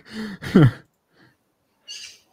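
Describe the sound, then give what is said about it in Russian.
A bird outside the window in summer calls twice in quick succession, full and warbling, then after a brief pause gives a short, high-pitched chirp. No one is speaking. “И такая птица а... вместо сверчка.”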